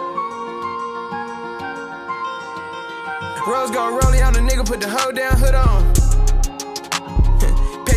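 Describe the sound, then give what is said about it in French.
A hip-hop song plays loudly on Radio Pulsar, opening with a sustained melodic synth intro before booming bass kicks and crisp percussion drop in about halfway through. “On va tout de suite passer à notre dernière pause musicale”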